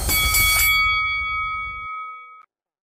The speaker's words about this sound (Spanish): que suene la campana